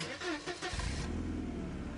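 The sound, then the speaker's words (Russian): A car engine revs up and settles into a steady low rumble as the vehicle pulls away, fairly loud, with no talking. A car and a police patrol car drive off one after the other along an avenue. “Какое-то время машины ехали друг за другом по проспекту Ваялая.”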